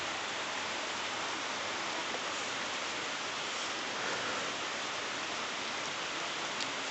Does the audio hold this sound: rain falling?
yes